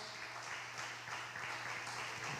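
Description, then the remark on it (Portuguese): A church audience applauds the Lord steadily, a dense wash of many hands clapping at an even level throughout, with a low hum underneath and no clear voices. “Quem pode aplaudir o Senhor?”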